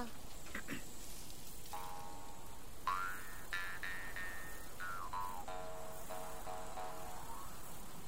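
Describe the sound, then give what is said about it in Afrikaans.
A jew's harp (trompie) twangs out the folk song Sari Marie. Its buzzy, resonant tones shift in pitch as the notes change, played alone over a faint steady hiss. “Maar nou gaan ek vir jou Sari Marie op die trompie speel, né?”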